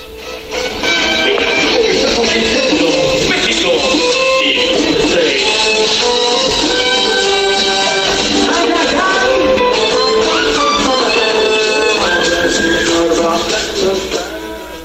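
Dense live band music plays loudly and steadily, with layered instruments and sustained melodic lines over a full, busy mix with no pauses; a group's performance closing a night festival celebration.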